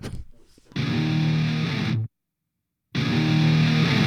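A loud, heavily distorted electric guitar riff from a nu-metal rock song plays in two thick, sustained bursts, cut apart by nearly a second of sudden silence, with no voices.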